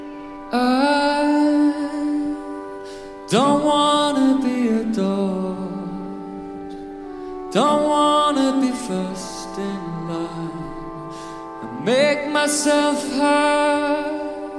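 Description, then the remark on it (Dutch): A live pop band plays with a singer singing a song about Hamburg, loud and full, with strong chords landing roughly every four seconds and sustained notes ringing between them. “Waar je nu naar zat te luisteren is een live uitvoering.”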